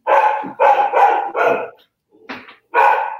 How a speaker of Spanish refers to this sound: Ay, perdón, está el perro con todo ahorita. No sé quién vino, déjame ver un segundito.